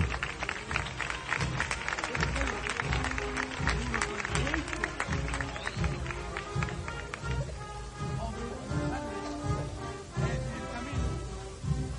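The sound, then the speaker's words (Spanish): A crowd claps steadily in rhythm along with a brass procession march as costaleros sway the paso through a turn (revirada), the sharp, dense clapping running throughout beneath the sustained tones of the band. “Ahora el mesido de la marcha, que muy bien acompañan estos costaleros. Y las palmas, como no.”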